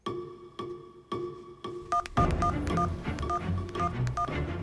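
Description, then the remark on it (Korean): Telephone keypad tones as an exam registration number is dialed to check university admission results: four evenly spaced beeps, then a quicker run of dialing beeps over a busier, noisier background. Clear, with no talking. “그리고 합격자 발표 날 가족들이 전화기 앞에 모여 앉은 자리에서 아가씨는 떨리는 손으로 수험 번호를 눌렀는데요.”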